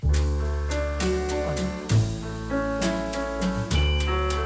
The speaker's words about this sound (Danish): det er 60 år siden, at … han indspillede …